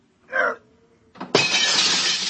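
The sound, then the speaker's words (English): A short muffled thump comes first, then after a pause a loud burst of shattering glass as windows are smashed, its bright, harsh crash and tinkling fragments ringing on steadily until the end. “Stop smashing those windows.”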